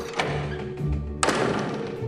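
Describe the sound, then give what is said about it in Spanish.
A door swings shut with a solid thunk, preceded by a softer knock and followed by a brief rattling tail, with no voices present. “la pobrecita de Alicia cerró la puerta y se volvió para dejar la llave en su sitio”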